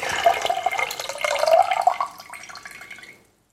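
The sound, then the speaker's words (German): Water pours steadily into a container for about three seconds, a continuous splashing stream whose tone shifts slightly as it fills, then stops abruptly. No voices. “Wie viel füllt ihr ab?”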